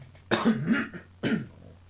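A person clears their throat twice: a longer rasping hack followed a moment later by a shorter one, with no talking.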